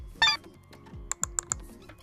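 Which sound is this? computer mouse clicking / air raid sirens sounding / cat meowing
computer mouse clicking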